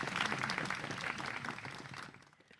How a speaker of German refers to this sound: Alle Janusz-Fans jubeln jetzt.